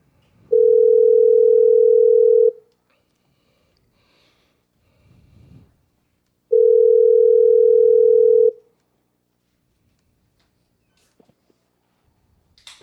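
A telephone line tone sounds twice, each a steady, loud two-second hum separated by a long pause, like a call ringing before it connects, with faint breathing noises in the gaps, as a crank call is placed to a children's hospital in New Orleans.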